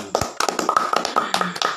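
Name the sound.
hand clapping applause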